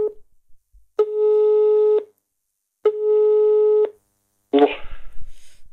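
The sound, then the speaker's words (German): Two long, steady electronic ringback tones, each about a second with a gap between, a constant mid-pitched buzzy tone on a telephone line during a call placed from Hamburg, followed by a burst of noisy crackle as the call connects. “Und um jetzt zu überprüfen, ob das auch alles äh, genau so war, wie ich mich daran erinnert habe, habe ich ihn nochmal angerufen, um zu fragen.”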